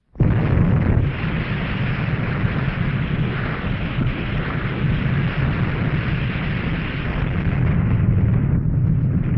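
A loud, unbroken barrage of fireworks explosions, the booms blurring into a dense rumbling crackle that keeps going for about nine seconds with no one talking.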